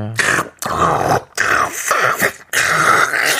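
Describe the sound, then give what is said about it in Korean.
A voice makes four loud, rough, gurgling slurps in quick succession, briefly pausing between them, imitating someone noisily eating yogurt. “근데 요거트를 왜 그렇게 시끄럽게 드세요?”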